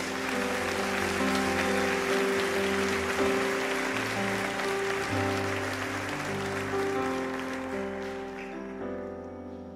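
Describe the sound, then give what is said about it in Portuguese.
Steady audience applause for Jesus at a worship service, a dense wash of clapping heard over sustained keyboard chords, keeps going for several seconds and then thins out and fades near the end. “Bata a salva de palmas para Jesus aí.”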